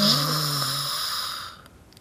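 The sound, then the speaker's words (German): A voice imitates the long, drawn-out snore of a sleeping wolf, a single rasping breath that starts loud and fades away into near silence. “Ach, und er schlief und schnarchte und Mhm.”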